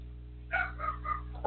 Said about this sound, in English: Hold on one second, my dog's going crazy.